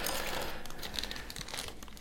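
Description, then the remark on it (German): Paper crinkles and rustles continuously for a couple of seconds as someone rummages inside a paper gift bag, with sharp crackly bursts and no talking. “Aber ich glaube, da ist noch was drin in der Tüte.”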